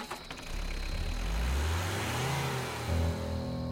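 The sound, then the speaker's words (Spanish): A car engine revs up and accelerates toward a town, its low growl climbing in pitch over a few seconds. It stays steady in loudness, with no voices. “Volví corriendo a mi auto y aceleré en dirección al pueblo.”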